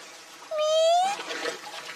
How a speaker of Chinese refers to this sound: 哇，是海豚呐！